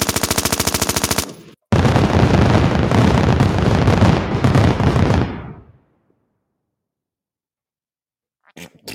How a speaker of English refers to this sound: I didn't want to get overshadowed by those beautiful new flatulent sounds.